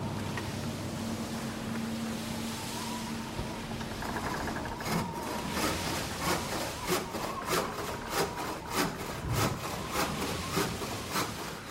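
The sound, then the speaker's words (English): A low, steady rumble like a ship's engine, then a carpenter's handsaw cuts wood in a regular back-and-forth rhythm, about a dozen clear rasping strokes, moderately loud, part of a display recreating life aboard a ship. “So you've got the carpenter in one thing, sawing, for example,”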